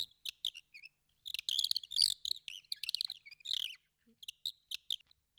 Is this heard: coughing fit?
no